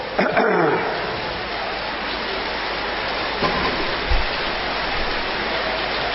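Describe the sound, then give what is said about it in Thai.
Steady rain pours down in a dense, even hiss that fills the whole recording, with a brief rustle near the start and a couple of soft low thumps partway through. “เสียง เสียงไม่ค่อย ใสเท่าไหร่ ฝนตกเปาะแตกชวนให้เหงานอนมากกว่า ใช่ไหมเออชวนให้เหงานอนมากกว่า”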